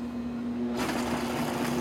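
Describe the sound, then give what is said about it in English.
A variable-speed blender motor hums with a steady low tone, then a broad, hissing whir kicks in partway through and keeps running evenly at a low-medium speed while 185 grams of cubed butter is slowly added to make a mousse. No one speaks. “So I'm going to start this run it on a low medium speed and just slowly add the butter.”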